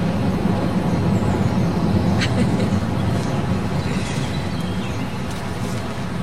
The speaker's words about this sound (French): que dire de plus que même si on est un petit peu détaché de la ville, on est quand même tout près parce qu'il y a le métro qui passe très souvent. On l'entend d'ailleurs là.